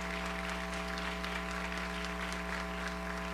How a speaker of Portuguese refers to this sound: Glória a Deus. Olhem só quantos visitantes. Glória a Deus. Vamos aplaudir ao Senhor por essas vidas tão queridas.